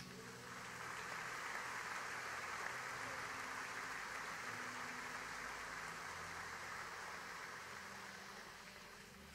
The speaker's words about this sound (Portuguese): Alguém pode dar um aplauso ao Senhor?